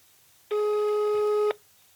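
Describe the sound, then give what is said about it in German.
A single steady telephone busy tone sounds for about a second, loud and clear with a buzzy harmonic edge, then cuts off abruptly into near silence. “Vielleicht ist er auch nicht erreichbar.”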